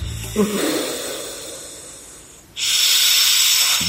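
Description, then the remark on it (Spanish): Loud, hissing snores from a person sleeping beside someone at night: a breathy inhale fades over a couple of seconds, then a sharp, steamy hiss bursts in like a steam train venting, sustained. No talking. “nos ha enviado el concierto nocturno que tiene cada noche a su lado, mira.”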